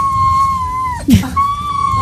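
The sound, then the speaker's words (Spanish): A female dog named Daura whines on a train in a long, steady, high-pitched tone that sounds almost like singing. It dips and breaks briefly midway, then resumes, over a constant low rumble of the moving train. “No le gusta mucho ir en tren, entonces se pone a llorar, pero parece que está cantando.”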